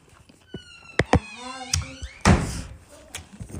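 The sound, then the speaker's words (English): A door is pushed shut, with a couple of sharp wooden knocks and a heavier thud as it closes, while a faint voice murmurs in the background. “Close my door, baby.”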